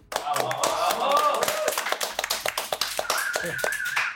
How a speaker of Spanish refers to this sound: Un aplauso, por favor.